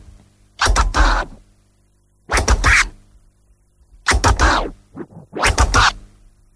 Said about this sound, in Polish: I to są jakby, to jest na dobrą sprawę dwuklikowa flara, którą można później łączyć z, y, nie robić przerwy, czyli... Czyli to jest bez przerwy no i dable, nie?